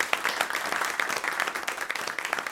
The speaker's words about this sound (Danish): Øh, vi takker hans majestæt, kong Frederik den 7., for at have afgivet sin enevældige magt til folket, fortsatte Michael Drevsen, og alle folk klappede begejstrede.